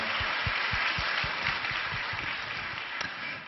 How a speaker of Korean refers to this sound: 우리 축복의 박수로 기한 말씀 청해 듣도록 하겠습니다. 우리 좋으신 하나님께 영광의 박수 올려드리겠습니다. 할렐루야.